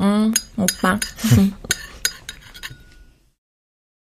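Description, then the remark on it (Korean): Spoons and chopsticks clink against bowls in a quick, irregular string of sharp taps as children eat at a dining table, heard from outside a room door. Brief speech and a laugh mix in early, then the clatter thins out and stops. “방문 밖에서 숟가락과 젓가락이 그릇에 부딪히는 소리가 들려왔다.”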